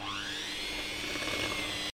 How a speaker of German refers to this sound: Jetzt mixen wir alles zusammen.